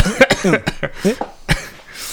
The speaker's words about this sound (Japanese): ああごめんごめんちょっと今咳してたりとかあのあれしてたんで聞こえなかった